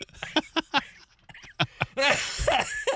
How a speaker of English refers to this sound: that caused a cough.